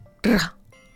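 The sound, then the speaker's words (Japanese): A single short burst of a voice rolling its tongue in a trilled r, loud, lasting about a third of a second with quiet room tone on either side, demonstrating the rolled r in a pronunciation lesson. “巻き舌は、”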